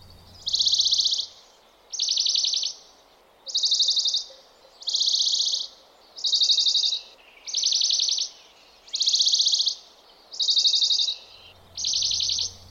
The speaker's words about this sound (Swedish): ni hör ju bergsångaren där att det är ganska mycket variation i både hastighet och